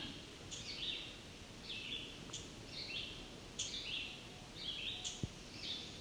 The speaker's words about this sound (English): appears to be a black and white warbler ticking. There's a pair of them.